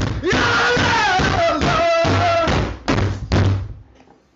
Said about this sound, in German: der einfach die ganze Zeit auf den Tisch haut und sich aufregt. Wir spielen es ja. mal kurz ein.